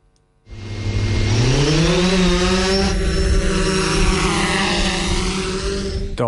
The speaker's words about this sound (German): das ist eine Drohne, die startet. Und diese Drohnen haben im Obertockenburg letzten Herbst für grossen Widerstand gesorgt. Die Schweizer Armee wird nämlich in dieser Region in Zukunft mit neuen Mini-Drohnen üben und umfliegen.